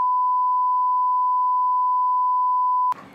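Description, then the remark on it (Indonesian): A steady, clear electronic phone tone of an incoming call from someone's mother holds unbroken for about three seconds, fairly loud, then cuts off into a burst of rustling handling noise. “ya telepon lagi mamamu ya”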